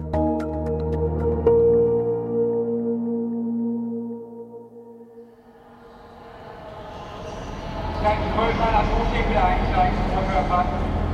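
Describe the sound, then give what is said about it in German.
Busy ambience with trains at Hamburg main railway station in spring 2013: a sustained, droning tone fades into broad rumbling noise, with indistinct voices and bustle rising in the background. “Frühjahr 2013 am Hamburger Hauptbahnhof.”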